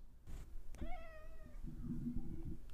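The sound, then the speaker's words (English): A cat lets out a single clear, drawn-out meow, its pitch sliding slightly downward, followed by a low rumbling murmur and no talking. “This, is, an interview, with, cats.”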